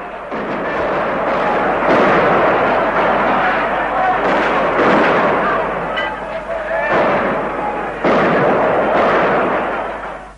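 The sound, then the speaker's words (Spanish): Loud, sustained barrage of gunfire and artillery during a popular uprising in Budapest, Hungary, with heavy booming bursts every couple of seconds over a dense, relentless rattle of shots, with faint shouting voices mixed in. “¿Quién efectuó el primer disparo?”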